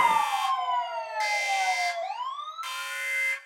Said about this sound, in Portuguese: Ô, editor, coloca aqui a, a vinheta de spoiler rapidão, porque o spoiler vai comer solto.